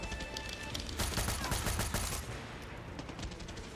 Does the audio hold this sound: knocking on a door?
no